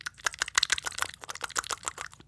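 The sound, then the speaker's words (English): A rapid run of wet, clicky smacks made by pinching both sides of the cheeks with the fingers, pulling them apart and bringing them together quickly, about a dozen quick pops in a couple of seconds, moderately loud with no talking. “you pinch both sides of your cheeks and you cheeks. pull them apart and b- bring them together quickly.”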